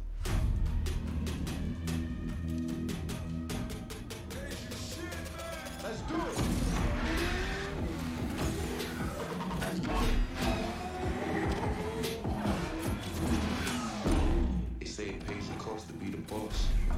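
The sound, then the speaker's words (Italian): A racing video game trailer: a loud, dense mix of roaring car engines revving up and down, punctuated by sharp crashes and metallic impacts, with a driving rhythmic backing that never lets up. “È uscito il trailer, no, Need for Speed in uscita il 2 dicembre.”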